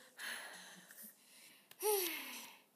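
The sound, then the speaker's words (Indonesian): Heavy, exaggerated breathing: a long rasping exhale, a quick catch, then a loud, strained gasp that trails off with a faint whine. “dengerin nafas gue”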